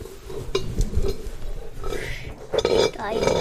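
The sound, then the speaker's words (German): A spoon clinks against a metal pot in a few scattered, bright metallic taps and scrapes, with a soft voice murmuring briefly underneath. “Was hast du hier gefunden? Löffel.”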